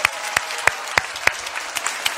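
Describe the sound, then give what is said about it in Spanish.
An audience claps steadily for the young people who performed a play, with sharp individual hand claps standing out at a regular rhythm above a dense, bright wash of applause. “Oigan, este, un aplauso para los chavos que hicieron una obra increíble.”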